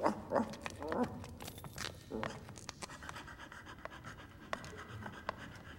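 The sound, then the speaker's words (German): A dog being walked on the Ramblas pants in quick, rhythmic breaths, loudest in the first couple of seconds, then fading into softer breathing with a few sharp clicks and taps. “Jeden Abend geht Goya mit seinem Hund an den Ramblas spazieren.”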